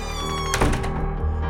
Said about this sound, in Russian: Будто он заранее знал, что позволит Анне закрыть дверь, но все еще не желал ее отпускать. Настойчиво и медленно Анна закрыла дверь.